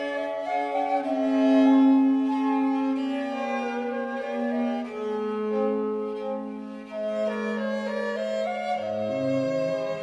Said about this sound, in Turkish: Müzik